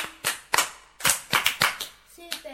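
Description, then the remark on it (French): A group of children claps together in a steady rhythmic cheer for a pupil who found a word, about eight or nine sharp claps in a row, with faint voices joining near the end. “La porte, un bas pour lui.”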